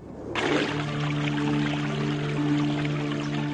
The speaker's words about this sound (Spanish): El agua de los pozos artesianos, que empezó a brotar a la superficie hace 250 años, está aportando nueva vida a las ruinas del desierto.